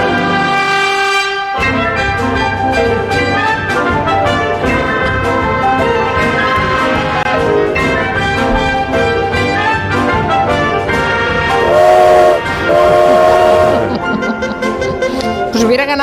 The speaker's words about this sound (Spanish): tema del tren de Rhapsody in Blue, al que le he metido un silbato de tren que no está en la partitura